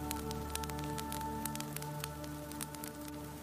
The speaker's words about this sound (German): Am anderen Ende des Raumes prasselt ganz sanft das Feuer eines Kamins.